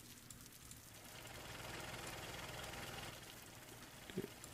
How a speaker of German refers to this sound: Gut. Der ist doch voll entspannt, der Regen. Ich finde den super.